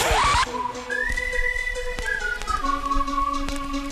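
A loud whistled melody of sustained, gliding notes plays over a thumping electronic dance beat, with steady rhythmic kicks beneath the tune and no voices.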